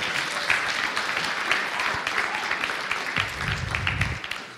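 A crowd claps steadily for several seconds, a dense, continuous patter of many hands at moderate loudness, with a brief low rumble near the end.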